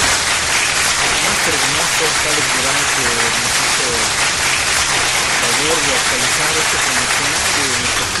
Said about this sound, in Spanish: Un también saludo, agradecimiento especial al máster de Masters. Aplauso, por favor.